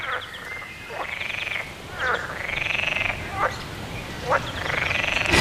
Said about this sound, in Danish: Nå, men altså, nu står jeg så midt i voldgraven i mine høje gummistøvler og optager lyden af frøerne. Det er temmelig eksotisk, som man kan høre